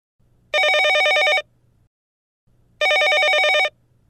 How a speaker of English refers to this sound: Ring, ring. The phone rings.